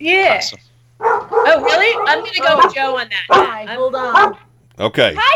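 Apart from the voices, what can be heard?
dog barking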